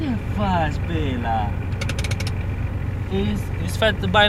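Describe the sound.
A jeep engine idles with a steady low rumble throughout in the mining town of Rochia Montana as a small stray dog runs up to it, while a voice talks over it and brief higher sounds break in near the end.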